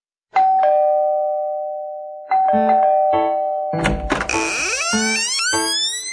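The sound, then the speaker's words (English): A Halloween doorbell chimes a two-note ding-dong whose tones ring out and slowly fade, then another chime sounds, followed by a busy flurry of bright ringing notes and rising, sweeping tones. “It's Halloween this evening, hear the doorbells ringing. Ding dong, ding dong, trick or treat.”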